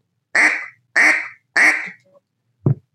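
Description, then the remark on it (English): Three loud, evenly spaced nasal quacks blown on a duck call, followed by a brief low thump; no talking. “but the quack is the basis of getting started on how blow, learn how to blow a duck call.”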